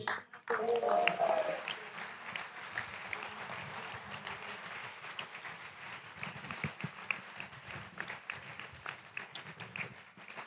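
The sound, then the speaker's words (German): A crowd claps and cheers steadily for about ten seconds at the finish of a race, heard in a played recording, dense and fairly loud, with excited voices calling out near the start and a busy murmur running underneath throughout. “Ja, der, der Schreier am Ende, den haben wir jetzt vor Applaus nicht mehr gehört, aber der war, glaube ich, von dir.”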